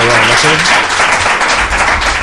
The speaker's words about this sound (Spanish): Y hoy cerramos así este programa con este caluroso aplauso de los cofrades de la Veracruz